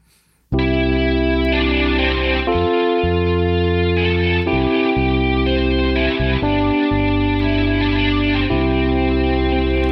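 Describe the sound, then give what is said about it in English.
A gritty, amp-distorted synth lead virtual instrument patch plays sustained chords that shift every couple of seconds, loud and saturated with buzzy harmonics and a touch of echo, with no voices. “Amp synth lead. Let's try this one.”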